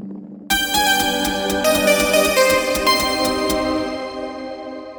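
A sustained, bright shakuhachi-style bamboo flute tone starts abruptly after a short pause and holds steadily, with light rhythmic percussive taps underneath and no voices.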